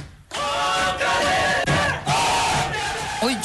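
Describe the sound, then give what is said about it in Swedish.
A football crowd roars in celebration as Superettan club Sirius from Uppsala secures a place in the Allsvenskan for next season, as heard on SVT Sport, a loud sustained wall of cheering and shouting that swells in waves for a few seconds, with no individual speech standing out. “En säsong som började med försiktig optimism och som slutade i rena glädjevrålet.”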